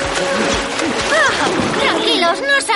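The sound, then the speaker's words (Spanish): Warriors enter river water and swim, a continuous, loud churning of sloshing and splattering, with wordless voices calling out over the noise. “Los hombres entran en el agua.”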